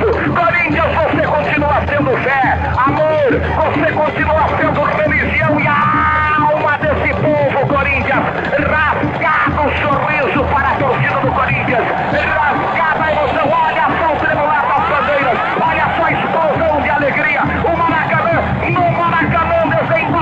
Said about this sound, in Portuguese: íntimo de cada um daqueles que estão aqui aplaudindo por você, Corinthians. Você é festa, você é alegria, Corinthians. Olha só o espetáculo que você proporciona, Corinthians.